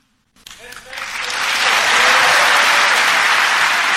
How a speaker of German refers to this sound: Hoeneß bekommt für diese Worte viel Applaus und sie sind wie frischer Zunder auf einer lodernden Glut.